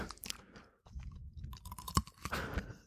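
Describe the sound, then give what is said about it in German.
Crunching as a firm, crisp fruit is bitten into, followed by several wet, crackling chews in an irregular rhythm, with no talking. “ich beiß mal rein. Merkst du? Wie im Apfel. Klingt härter als ein Apfel, oder?”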